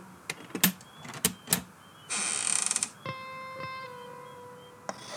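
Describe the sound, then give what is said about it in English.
A few sharp wooden clicks and a rattling, grinding burst as a heavy chest lid is forced open, followed by a long, steady creaking tone that fades out. Fairly quiet, no voices. “I choose the chest. Very well. Look inside.”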